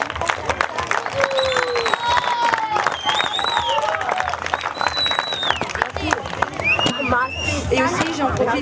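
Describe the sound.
Sustained applause from a large crowd at a school event, thanking the teacher who hosted it, dense rapid clapping throughout, with scattered cheers, whistles and voices rising above it.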